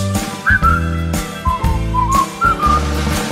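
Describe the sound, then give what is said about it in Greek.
A cheerful whistled tune of short, bright notes that step up and down in a bouncy rhythm, played over a full instrumental accompaniment with steady beats. “Χαμογέλασε στο θεατή σου Σφύριξε χαρούμενα μπορείς”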